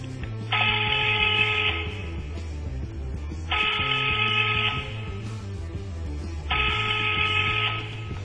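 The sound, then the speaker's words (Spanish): A telephone rings three times during an outgoing call, in a steady pattern, each bright, buzzy ring lasting over a second with equal pauses between, over a low background hum and no talking. “Sí, Llamemos de nuevo, probemos de una vez más.”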